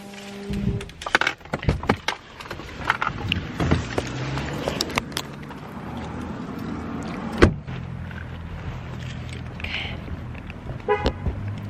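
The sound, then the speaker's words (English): A pickup truck is locked with a short, sharp horn chirp after a series of clicks and rustling handling noises, heard outdoors on a pitch-black, cold night with no talking. “Locking up the truck.”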